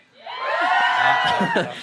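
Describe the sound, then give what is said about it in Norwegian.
A crowd of voices shouting and cheering together, a sustained burst of loud overlapping yells that swells quickly and holds for a couple of seconds. “det er de samme som roper uansett.”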